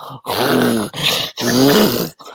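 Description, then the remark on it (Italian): A voice imitates a dog that has slipped off a cushion and breathes with its nose resting on the floor: three loud, rough grunting snorts in a row, each a short throaty burst with brief gaps between. “è lì che praticamente è scivolato dal cuscino e c'è il naso che appoggia per terra e quindi quando respira”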